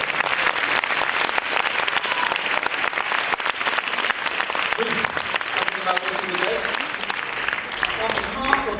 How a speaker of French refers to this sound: Allez, quelques derniers applaudissements, s'il vous plaît.